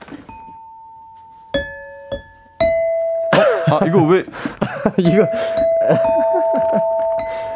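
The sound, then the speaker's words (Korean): A few bright notes are struck one at a time at an uneven pace on a ding-dong-daeng quiz xylophone during a live radio broadcast, each ringing on, then a man talks and laughs while more tones sustain beneath. “그거는 딩동댕 실로폰이고요.”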